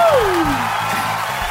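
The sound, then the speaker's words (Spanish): A group gives steady, dense applause to welcome a guest who leads the Chilean contingent to the Eurojam, filling the whole moment at an even loudness, with a brief falling whistle-like tone sliding downward at the start. “Aplausos para la Calú.”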